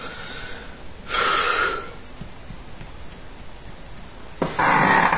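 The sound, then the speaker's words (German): Two loud, breathy snorts as air is pulled sharply through the nose with the tongue held in front, the first lasting nearly a second and the second coming a few seconds later, with no talking. “Machst du so und ziehen. Ja, mit der Zunge davor.”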